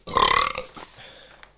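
A single loud, drawn-out burp with a raspy, rumbling tone, strongest at the start and trailing off over about a second and a half, with no talking.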